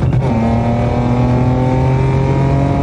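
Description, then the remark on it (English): The engine of a small Winchell sedan roars at speed, its steady low hum layered with rising harmonic tones as it revs, loud and continuous with no voices. “the mayor and general staff's faces contort as we look back and forth between them and Gil in the speeding sedan.”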